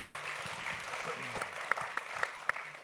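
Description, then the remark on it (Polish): An audience applauds steadily at the close of a panel discussion, a dense patter of many hands clapping with a few sharper, louder claps standing out, and faint voices murmuring underneath. “Dla pani też wielkie brawa.”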